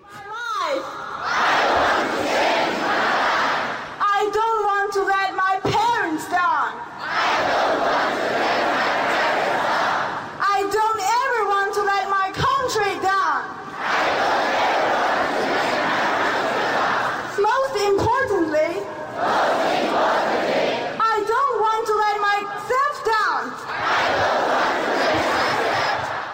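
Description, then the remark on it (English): A large crowd of Chinese students screams English phrases in unison to practice the language, loud, alternating chanted shouts with roaring bursts in a repeating call-and-response rhythm. “Listen as Chinese students practice their English by screaming it.”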